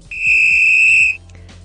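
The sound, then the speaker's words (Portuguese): A single sharp referee's whistle blast, loud and steady, held for about a second before cutting off, with a faint low rumble underneath and no talking. “Tem apito?”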